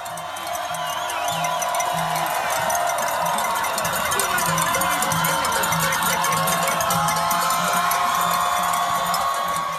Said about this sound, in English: Via CBS's David Begnaud, here's the sound of Puerto Rico protests on Monday.